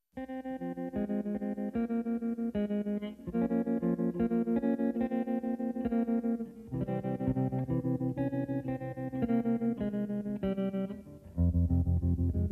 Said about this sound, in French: Alors, euh, dans ce film, on entend une chanson merveilleuse.